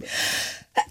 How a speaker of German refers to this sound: Äh, Gesundheit.